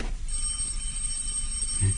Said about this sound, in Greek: Να το πάλι το τηλέφωνο.